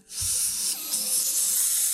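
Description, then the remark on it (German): A steady, breathy hiss of a man blowing out white vapor and spores after inhaling from a fist-sized bulb slit open with a knife, starting abruptly and continuing for about two seconds with no one talking. “Und du siehst, wie er inhaliert und weißen Dampf auspustet, Sporen auspustet, auch in deine Richtung.”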